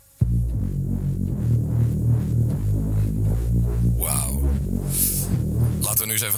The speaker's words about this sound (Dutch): En we hebben de bassline.